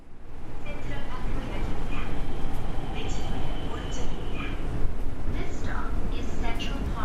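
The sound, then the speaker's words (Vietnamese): Steady low rumble of a subway train in motion fills the whole stretch, with faint, indistinct voices of passengers murmuring underneath and occasional higher rattles. “Ngay trên tàu, chúng tôi bắt gặp rất nhiều bạn mặc trang phục quần lửng, áo thun không tay, đeo trang sức như vòng cổ choker và nhiều phụ kiện rất hoành tráng khác.”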